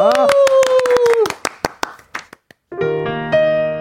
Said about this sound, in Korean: 자, 박수를 한번 청해보겠습니다.